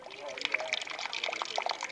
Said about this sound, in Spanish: Voy a poner agua para el mate.